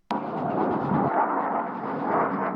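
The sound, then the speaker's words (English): A loud, steady roar of military jets starts abruptly and keeps rumbling without a break over Khartoum, Sudan, during fighting between two military factions. It is a broad, heavy wash of engine noise with no voices. “The sound of gunfire, explosions, and the roar of military jets have been reverberating across Sudan's capital, Khartoum, since early this morning.”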